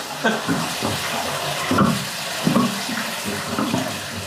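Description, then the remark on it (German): Steady rush of water running from a water pipe that automatically refills an underground cistern back up to its required water level, a continuous filling sound with faint gurgling, with some faint voice-like murmurs underneath. “dann geht automatisch die Wasserleitung an und wird das aufgefüllt wieder auf das Niveau”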